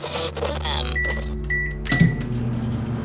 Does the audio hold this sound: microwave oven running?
yes